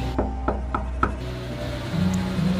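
Four quick, evenly spaced knocks on wood, heard as knocking at a door, in a steady rhythm, crisp, followed by a low, faint hum with no voices.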